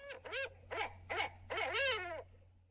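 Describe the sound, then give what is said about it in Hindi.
An owl hoots four times in quick succession over a telephone call, each call swooping up and down, the last one longer, over a steady low electrical hum of the phone line. “मैंने कहा हेलो फिर से आवाज आई मैं खींच के फोन रखने ही वाला था कि किसी ने धीरे से कहा अरे मैं तो भूल गया था तुम मेरी तरह उल्लू थोड़े ना हो जो मेरी भाषा समझ जाओगे”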